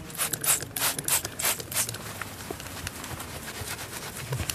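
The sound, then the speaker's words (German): Several quick hissing spritzes from a spray bottle in close succession, followed by softer, steady rubbing and scrubbing with a sponge as Stolpersteine (memorial stones) are cleaned on 9 November, the anniversary of Kristallnacht, with faint outdoor background and no talking. “Deshalb hat Katrin Schmidt Sprühflasche und Schwamm dabei und putzt Stolpersteine.”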